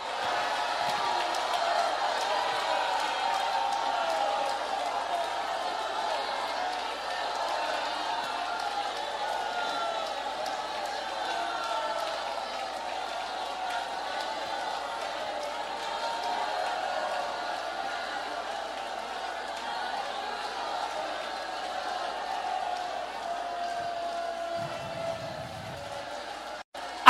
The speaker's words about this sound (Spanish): ¿Será que usted puede usar hoy sus pulmones? ¿Será que usted puede hoy alabar a Dios? ¿Será que usted puede gritar? Grite con gran voz, que se oiga. A ver, aquí estamos de fiesta.